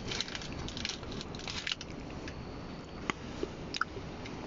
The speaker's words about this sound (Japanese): 咀嚼中で、うまく話せ